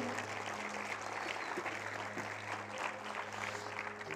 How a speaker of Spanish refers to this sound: Yo le daría un fuerte aplauso al Señor en esta mañana. Damos fuerte el aplauso al Señor.